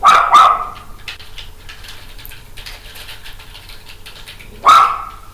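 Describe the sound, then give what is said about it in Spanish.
A dog named Marley barks: two quick sharp barks at the start, a pause with faint low background noise, then one more loud bark near the end. “¡Cállate, Marley!”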